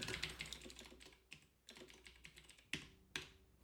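Crisp clatter of typing on a computer keyboard, with quick bursts of keystrokes broken by short pauses and a couple of sharper single key hits near the end. No one speaks.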